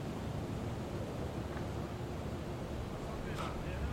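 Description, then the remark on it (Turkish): A wind turbine turning in the wind gives a steady, continuous whooshing drone with a deep low rumble underneath, holding at an even level throughout with gusty wind noise mixed in. “Rüzgar gülü.”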